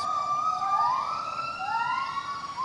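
A family of gibbons in a gibbon reserve sings to each other over a great distance, long rising and falling whoops overlapping, over a steady high cicada buzz.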